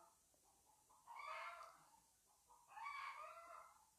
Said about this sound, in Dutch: Ik hoor echt de hanen en de kippen bij ons, ehm, de buren, gigantisch uh, tekeer gaan.